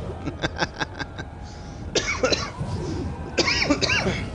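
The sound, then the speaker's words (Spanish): A rapid burst of about six short coughs in quick succession from a person who is somewhat ill, followed by a couple of heavier, raspy hacking coughs with throaty strain, no speech. “Ay, mi tosesión.”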